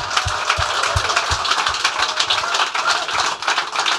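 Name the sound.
audience applause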